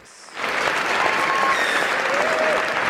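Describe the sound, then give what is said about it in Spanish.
Sustained applause from a crowd kicks in after a brief quiet moment, a dense, steady wash of clapping with a few faint whistles riding over it. “Esto es, pará, esto, amerita. Amerita. Aplausos.”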